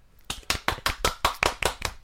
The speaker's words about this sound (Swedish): Ja, vi får ge en applåd